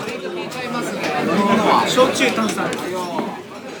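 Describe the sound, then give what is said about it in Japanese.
Steady chatter in a busy yakitori restaurant, many overlapping voices from a crowded counter blending into a continuous murmur with occasional clinks and brighter voices rising. “今入り口のところで待たされてます席に通されましたカウンターですね”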